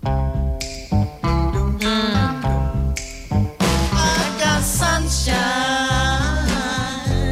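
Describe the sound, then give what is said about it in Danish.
A loud, continuous stretch of full-bodied music from a film, with sustained harmonic tones, a steady low-end pulse and brief dips between phrases, heard on its own without any talking. “Altså, lige den der er også fra en, en film, man har set på et mm. tidspunkt.”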